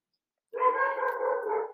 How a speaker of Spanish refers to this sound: Y por supuesto, alerta de perros,